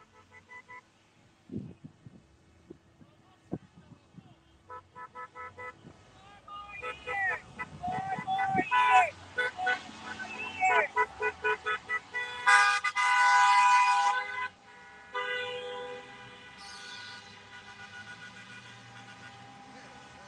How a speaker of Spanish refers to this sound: Suene cornetón, suena. Se siente la alegría, mis amigos.